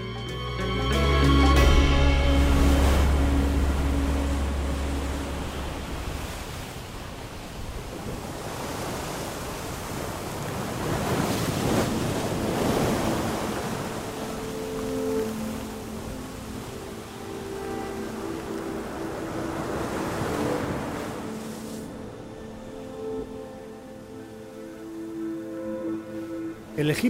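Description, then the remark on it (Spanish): Mediterranean Sea waves wash and break against the shore at Alexandria, Egypt, in slow, broad surges, rising and falling over a steady tonal backdrop that sounds like soft music. “claro que sí, a la ciudad de Alejandría, a orillas del mar Mediterráneo.”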